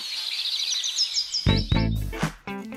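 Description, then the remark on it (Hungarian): A nightingale sings a quick series of high, bright chirps and trills, followed by several louder, fuller warbling notes that come in short bursts. “választhatnál, hogyan mondanád? Dalabáj zenér vagy fülemüle?”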